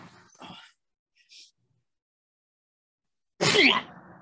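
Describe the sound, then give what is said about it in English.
A single loud, abrupt sneeze bursts out near the end, following a few faint breathy sounds and a brief pause of quiet. “bless me. and she's like, bless you, Inquisitor.”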